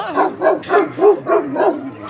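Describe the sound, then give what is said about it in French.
An Anatolian shepherd dog at an animal shelter lets out about six deep, loud barks in a steady, even rhythm, with no pauses between the bursts. “qui est un berger d'Anatolie. Un beau chien.”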